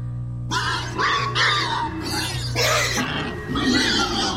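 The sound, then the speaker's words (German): Pigs squeal loudly in a rapid series of shrill, overlapping cries, with a steady low hum running underneath and no one speaking. “Wenn Sie diese Schweine quieken hören, in was für einer Stimmung sind diese Tiere?”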